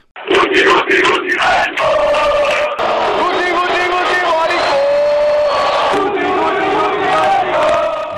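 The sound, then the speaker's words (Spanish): A large Spanish football stadium crowd, at grounds such as the Calderón, Riazor or Nou Camp, chants homophobic insults at footballer Guti in unison, loud and sustained, with rhythmic bursts of many voices shouting together and a dense roar of the crowd underneath. “Escuchábamos los insultos que sufrió Guti en el Calderón, en Riazor, en el Nou Camp, pero en realidad se cantó hace unos años con total impunidad en todos los campos de fútbol españoles.”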